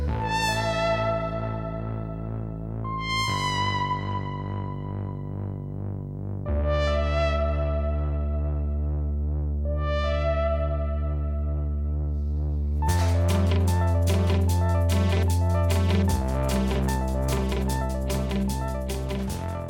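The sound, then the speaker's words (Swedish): Electronic krautrock from a band's second album, released in 2008, plays on its own, with sustained synth tones and a steady droning bass that swell into a denser, pulsing layered texture partway through. No one speaks. “Jag spelade upp den här lite mer elektroniska krauten innan”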